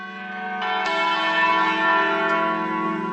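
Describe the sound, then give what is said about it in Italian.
Church bells ring out in overlapping strikes, each new peal landing over the sustained, humming resonance of the last. Fairly loud, with no voices. “Primo Capanni che fa le campane c'è una traccia del del Settecento, risulta dagli archivi di Parma dove parlavano proprio di un fonditore Capanni che era stato chiamato per fare un certo lavoro ecco.”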